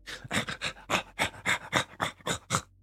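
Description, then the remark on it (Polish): A person imitates a dog panting as it comes running up with its tongue out, producing about ten quick, breathy huffs in a steady rhythm, clear with no other sounds. “On przybiega e, z tym jezorem”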